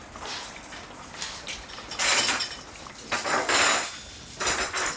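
Pots and cutlery clatter in a kitchen as a young man and his father prepare dinner, with several bright, uneven bursts of metallic clinking and scraping over a low background hiss, without speech.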